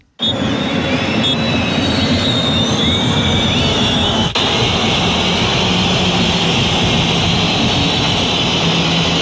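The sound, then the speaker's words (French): A stadium crowd of Olympique de Marseille fans at the Stade Vélodrome boos loudly and continuously as players leave the pitch for the dressing room after a 1-1 draw against Metz at the final whistle, a dense, unbroken roar with shrill whistles cutting through on top, and no one speaking. “La bronca pour raccompagner les joueurs au vestiaire.”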